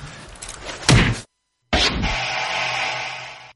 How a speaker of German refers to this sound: Dürfte ich dir eine reinhauen? Klar, gerne.